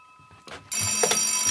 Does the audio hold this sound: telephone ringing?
yes